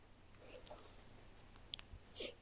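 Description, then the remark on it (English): A quiet sip of water with soft wet mouth clicks and a short slurp near the end, no talking, just faint room hum underneath. “sipping. I had to do that. That's water.”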